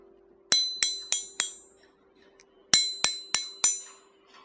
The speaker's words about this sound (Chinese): 这是村子里报警的钟声，村子里肯定出大事儿了。